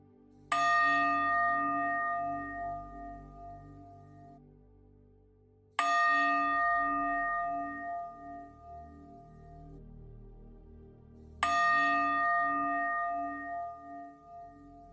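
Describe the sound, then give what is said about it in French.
Three resonant meditation gong strikes at even intervals of about five seconds, marking the end of a guided meditation, each ringing out with a bright metallic shimmer and slowly decaying hum before the next hit. No voices. “Au troisième gong, tout sera parfaitement intégré et installé.”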